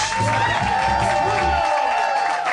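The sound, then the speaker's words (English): A live audience at a Harmontown show cheers and roars for Dan Harmon in a steady, dense wash of crowd noise, with scattered claps and shouts mixed in, loud and sustained throughout. “This is a boisterous crowd we have here tonight.”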